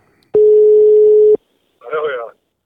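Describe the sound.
A single steady phone ringback tone sounds for about a second, loud and clear, followed after a short pause by a brief burst of someone's voice.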